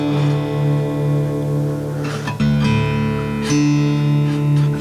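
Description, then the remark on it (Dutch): Fingerpicked Tanglewood acoustic guitar in a Travis style, steady ringing chords with low bass notes under brighter plucked strings and a few sharper strums, played alone with no voices. “Is dat Travis picking of zo?”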